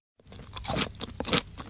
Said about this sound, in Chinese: 小姑娘把椅子挨个坐了一遍，又在每个碗里喝了一口粥，最后还是决定坐在最小的椅子上。捧起最小的碗吃了起来。